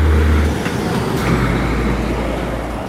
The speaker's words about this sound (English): I think they're trying to avoid a traffic jam or something like that I've never seen these kind of trucks here. It's usually just trucks related to farmers' activities. But these are uh, these big trucks to carry loads of cars.